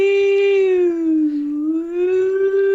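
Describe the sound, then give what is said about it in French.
A loud alarm siren wails continuously in Texas as a couple eats breakfast cereal, its pitch sagging slowly in the middle before climbing back up, with no voices over it. “Eh bien, on était tous les deux en train de manger nos céréales quand une alarme a retenti.”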